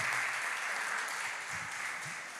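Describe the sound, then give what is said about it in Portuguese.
Sustained audience applause for volunteers, a dense wash of many hands clapping steadily from a crowd, fairly consistent in loudness throughout with no talking over it. “Eles merecem salva de palmas por essa voluntariedade.”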